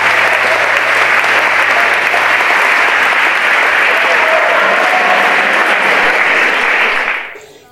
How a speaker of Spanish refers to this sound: Merece entonces el maestro Fernando Salazar todos los aplausos de nuestras audiencias y de esos públicos que le admiran y gustan de su excelsa composición. Aplausos de pie para este poeta y labriego del amor, Fernando Salazar Valga.